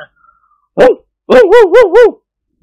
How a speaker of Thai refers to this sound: พอมันแลเห็นนิกรกับกิมหนวน เจ้าหมาฝรั่งก็ลุกขึ้นยืนจังก้า ส่งเสียงตวาดไปก่อนตามธรรมเนียมของหมา